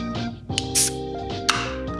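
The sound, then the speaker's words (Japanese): A beer can is opened deliberately to make the sound heard: a sharp click of the tab, a brief fizzy hiss of escaping gas, then another metallic tap, all over a steady humming tonal background. “じね、僕ね音声配信やっててね一番上手くなったのねこれ開けるて聞かせること。”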